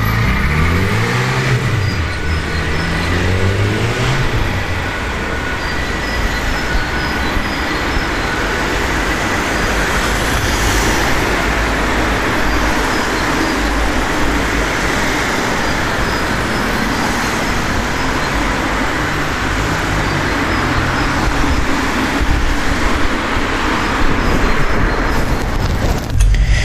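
Loud, steady street traffic roar with an ambulance passing close by, its siren wailing up and down in the first few seconds before the rumble of vehicles carries on alone.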